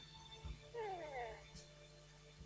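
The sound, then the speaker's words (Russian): A latest-generation electronic toy cat gives a short meow, a bright descending wavering tone lasting under a second, with faint background hum and a soft knock before it. “Я называю его сумасшедший кот, crazy cat.”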